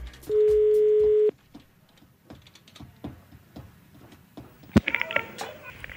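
A single steady telephone ringing tone of an outgoing call lasts about a second, followed by quiet line noise, soft clicks and a sharp click as the call is picked up, then muffled rustling.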